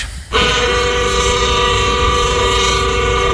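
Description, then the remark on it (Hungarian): A loud, sustained signal horn blast, from a horn set beside the finish straight of a racetrack, sounds alone, starting abruptly and holding a steady, rich multi-tone chord for several seconds without a break. “Ez a jelzőkürt azért van kitéve ott a célegyenesben a pálya mellé”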